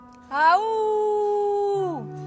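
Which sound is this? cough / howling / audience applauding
howling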